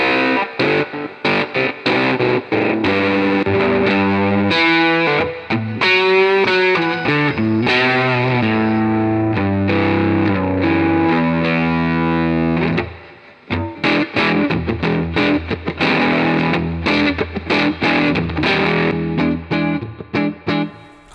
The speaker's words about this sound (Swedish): Ja, men, men, men mm. det, ja, det låter coolt. Det låter roots. Alltså, mm. det där är en, en, en förstärkare på hög volym.